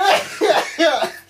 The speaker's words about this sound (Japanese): 今度ゲップだよゲップしてんじゃん